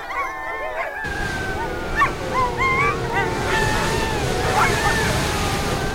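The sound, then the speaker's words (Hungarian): A steady, windswept rush of noise fills the air while high, wavering canine whines and yips rise and fall above it, a bleak, cold tundra ambience that continues without pause. “Ezt a hűvöset, ezt szeretném mindenki fülébe és kabátja, kabátgallérja alá fújni ez most igazi tundra, ez az, egyébként most viccen kívül, ez a tundra hangja.”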